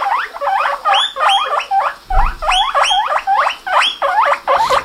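A guinea pig makes a rapid run of squeaky, rhythmic grunting calls, fairly loud, repeating in quick bursts with no one talking.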